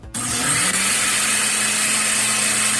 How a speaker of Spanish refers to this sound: ya está preparándose esta licuadora virtual que traigo aquí en FM Globo